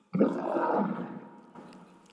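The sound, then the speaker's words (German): A lion lets out one loud, deep roar that bursts in abruptly, rumbles for about a second, then trails off into a quieter, lower grumble. No one speaks. “Und du musst wissen, Löwe, wenn die brüllen, die können 140 ähm, Dezibel laut brüllen.”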